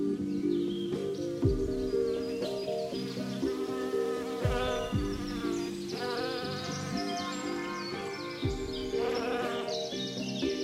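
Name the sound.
honeybees buzzing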